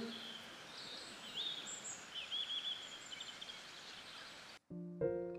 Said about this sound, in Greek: Και το πουλάκι πέταξε μακριά, είναι όμως κάπου εκεί ψηλά και μας γεμίζει όμορφες στιγμές με το κελένιμα του.